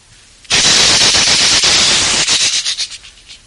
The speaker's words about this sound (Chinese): 在山谷深处，这一声炮响，万山有回音呐，使人是震耳欲聋。